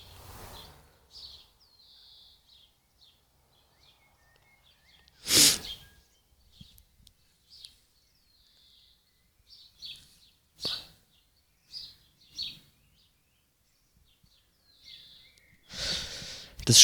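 Birds chirp and twitter repeatedly outdoors in short, high calls, fairly faint, broken up by a few loud, breathy bursts like sniffs or sneezes. No one speaks.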